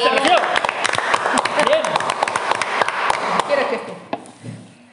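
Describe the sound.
A short burst of clapping from a small group applauding a teacher, dense sharp claps for about four seconds before fading out, with some voices mixed in.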